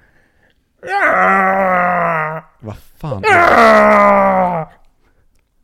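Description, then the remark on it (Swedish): A man's voice imitates Mickey Rourke's anguished scream as the T-Rex baby in The Lost World, in two long, loud, strained bursts separated by a brief spoken interjection, the cries sustained and groaning with a rough, wailing tone. “Precis som Mickey Rourke när han skriker”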